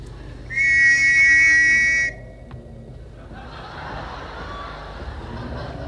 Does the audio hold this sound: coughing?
no